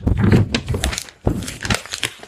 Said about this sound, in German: Jetzt zerknülle ich mal ein Blatt.